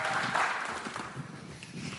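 An audience claps steadily, a dense, even patter of many hands at a fairly constant loudness for about two seconds, with no voices rising above it.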